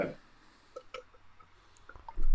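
Someone takes a quiet sip of water, with a few soft, wet slurping and swallowing clicks spread over a couple of seconds.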